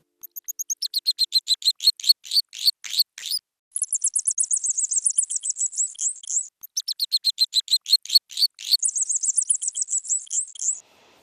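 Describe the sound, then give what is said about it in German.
Two songs from two different male greater sac-winged bats, a small insect-eating bat of Central and South America, one after the other, each a quick run of sharp high chirps flowing into a long buzzy trill. Clear, with no voices. “was man da gerade gehört hat, waren zwei verschiedene Gesangsaufnahmen von zwei verschiedenen Männchen”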